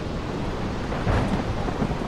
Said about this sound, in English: It's dark as night, and the sky is filled with lightning. You can barely see the rest of the ship through the torrential rain. The wind screams in your ears, and you have to shout to the sailors next to you just to be heard.